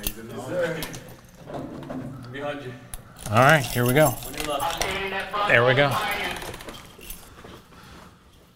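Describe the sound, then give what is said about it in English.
Keys jangle and clink repeatedly as a man fumbles to find the right key to unlock a school door that locked automatically during a lockdown exercise, the metallic rattling continuing under his brief spoken remarks. “He fumbles for his keys, and he's trying to find the right one.”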